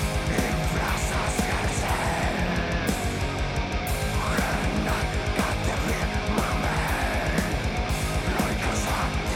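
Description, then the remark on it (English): Loud, dense 90s-style rock music plays continuously, with a distorted guitar riff driving over steady, pounding drums; no one speaks over it. “That's a good riff. Yeah. It's very 90s.”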